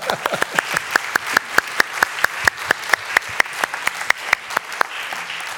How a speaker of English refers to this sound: Give the Lord a clap.